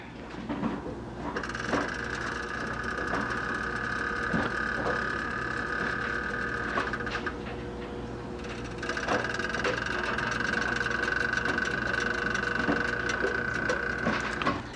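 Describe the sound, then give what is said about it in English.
Water heating on an electric stove burner creaks and ticks steadily as it nears temperature, with a thin whining tone that fades briefly midway and then returns. No one speaks. “I turn the uh, heat up on, and when it starts getting close to temperature, it always sounds like a, a old wooden ship in the sea.”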